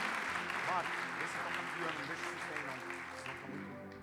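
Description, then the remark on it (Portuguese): An audience applauds the Lord in worship in a steady, dense wash of clapping that holds for several seconds, with voices and a brief higher vocal note mixed in beneath it. “Aplauda o Senhor, aplauda, aplauda.”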